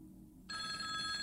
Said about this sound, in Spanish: Sonó el teléfono de la casa y él salió corriendo diciendo que tenía que contestar.